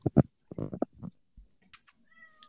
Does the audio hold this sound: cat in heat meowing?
yes